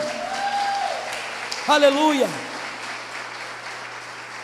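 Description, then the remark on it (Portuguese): An audience applauds steadily, a dense, even wash of clapping that fills the whole clip, while a voice briefly shouts out over it partway through. “Aplauda o que reina.”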